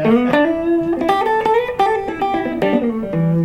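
An electric guitar plays through an amp, picking a melodic run of single notes with a few strummed accents, warm and clean with smooth sustain, fairly loud, with no talking.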